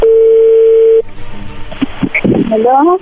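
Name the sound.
telephone call connecting tone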